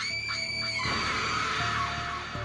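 A shrill, wavering cry blends a horse's whinny with a woman's scream, sustained for a couple of seconds with trembling high harmonics over a rough, noisy layer, loud throughout and ending abruptly; the cry of the legendary 'femme mulet' (mule woman) among graves, whose hooves are bound in chains.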